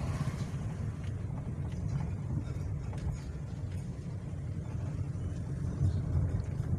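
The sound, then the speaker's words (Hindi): A steady low engine rumble with road and wind noise, like riding inside a moving vehicle, continuous and fairly loud throughout with no talking. “गाड़ी चलती जा रही है आगे”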